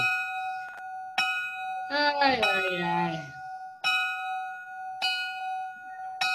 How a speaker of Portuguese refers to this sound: Deixa eu acabar de tocar o sino. Toca, meu filho.